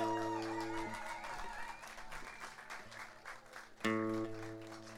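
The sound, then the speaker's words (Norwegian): An audience breaks into steady, fairly loud applause for two musicians who sat in the background, clapping continuously throughout, while sustained musical chords ring over the start and swell again near the end. “Men kan vi få en applaus til de to som har sittet i bakgrunnen, da?”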